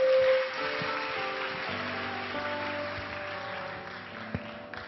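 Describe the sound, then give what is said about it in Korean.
An audience at a church service claps steadily together in a dense, continuous wash of applause to welcome a pastor's sermon, with sustained keyboard or organ chords holding underneath throughout. “우리 축복의 박수로 기한 말씀 청해 듣도록 하겠습니다.”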